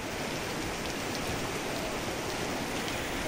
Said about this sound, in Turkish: Edirne'de başlayan yolları göle çeviren yağışlar devam edecek. Trakya ve Çanakkale bölgesinde yer yer sağanak yağışlı hava bugün de sürecek.